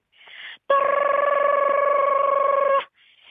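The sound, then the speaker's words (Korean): A voice imitates a subway train pulling into a station: a short breathy lead-in, then a loud, steady buzzing hum held for about two seconds before it cuts off abruptly. “지하철 들어오는 소리부터 안내 방송.”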